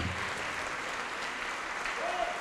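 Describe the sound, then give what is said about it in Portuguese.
A church audience applauds the Lord Jesus as people come forward, in a steady, dense wash of clapping that fills the space evenly, with a faint high tone briefly rising near the end and murmured voices mixed underneath. “Você que já acreditava em Cristo, mas reconhece que não estava servindo como devia, vem aqui para frente agora também e vamos aplaudir ao Senhor Jesus por cada vida que está chegando.”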